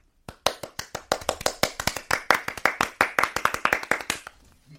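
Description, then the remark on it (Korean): Hands clap steadily for about four seconds to welcome a singer's song performance, a quick run of crisp claps from what sounds like a small group, fading out at the end with no voices. “저희가 그렇다면 박수로 청해 듣겠습니다.”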